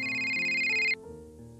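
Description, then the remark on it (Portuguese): A mobile phone ringtone sounds loud with bright, sustained electronic tones, then cuts off abruptly after about a second, leaving softer lower tones trailing behind. The phone is buried under papers on an office desk. “O telemóvel tocou abruptamente, despertando André que estava imerso a inserir os dados no seu computador.”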